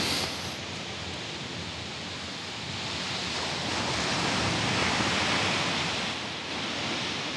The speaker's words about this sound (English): As I walk to the waves